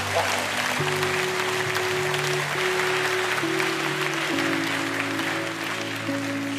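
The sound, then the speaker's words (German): Steady, loud applause from a crowd given for Jesus, a dense wash of clapping that keeps going without a break, with sustained keyboard chords holding underneath and shifting a few times. “Komm, wir geben Jesus mal einen richtig mächtigen, mächtigen Applaus.”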